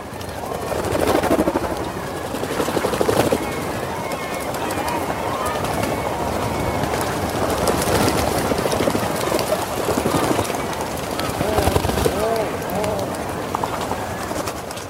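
A dense breeding colony of rhinoceros auklets on Teuri Island, Hokkaido, Japan, where some 600,000 of the birds are said to gather to breed, calling all at once: a continuous chorus of overlapping low groaning and cooing cries with flapping and rustling, steady and fairly loud throughout.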